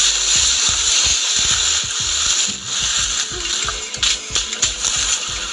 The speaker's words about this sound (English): I think you can probably hear it. I'm scraping through so many of the large cocoa pod leaves.